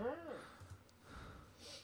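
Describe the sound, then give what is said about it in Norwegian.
A person catches their breath with a few strained, voiced gasps and then a soft, breathy exhale. It is fairly quiet, and there is no clear speech. “Kanskje jeg klarer å puste litt igjen.”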